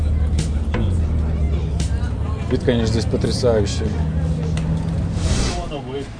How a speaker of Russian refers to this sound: Так, поднимаемся сейчас наверх. Дорога занимает до верха 20 минут на автобусе. Дорога здесь очень узкая, и проехать может только один автобус.